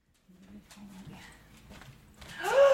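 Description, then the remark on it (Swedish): Quick, light pattering of the dog Ringo's paws scurrying across a hard living-room floor in a house by Lake Mälaren, building in loudness and ending with a sudden sharp rising cry. “Såg ni hur han sprang in?”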